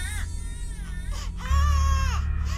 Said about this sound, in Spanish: Comenzaron a caminar en dirección a donde se escuchaba el llanto. En minutos ya iban cerro arriba, y el llanto era más y más fuerte cada vez.